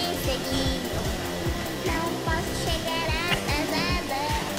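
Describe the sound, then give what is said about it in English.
A vacuum cleaner roars loudly and steadily, its constant whooshing drone overlaid with voices and a string of rhythmic knocks and thumps as the vacuum is beaten into a wall. “we really beat that fucking vacuum up”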